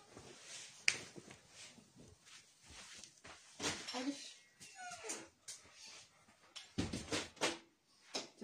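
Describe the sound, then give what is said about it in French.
A puppy whimpers and whines in short, high-pitched bursts, wanting to be let in through a door, with scratchy rustling and clicks around it and a person's voice briefly in the background. “Le bébé chien est rentré.”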